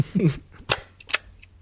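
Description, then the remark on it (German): An EXA 1C 35mm single-lens reflex film camera with a simple flap shutter is cocked and fired: a short ratcheting rasp, then two crisp mechanical clicks spaced about half a second apart, after a brief low voice murmur. “Hallo, beiliegend die Geräusche einer EXA 1C beim Spannen und Auslösen.”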